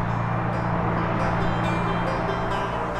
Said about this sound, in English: Here we hear, for example, the intense car noise of the ring around Antwerp.